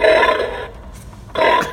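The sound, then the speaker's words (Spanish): A pig gadget kept in a fridge, set off by its light or motion sensor when the fridge door is opened, plays recorded pig grunting: two loud, raspy, snorting bursts, the first longer, separated by a brief quiet gap, with no one talking. “lo cierras en el frigorífico y cuando abres la puerta, se activa la luz o el movimiento, no sé por qué, cuál es el tipo de sensor, y el cerdo se pone, el cerdito se pone a gruñir, insultarte, como podéis escuchar ahora.”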